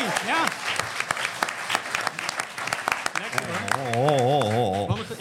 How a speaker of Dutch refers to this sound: En voor ons zit een publiek van 120 man. Welkom. Applaus voor jullie.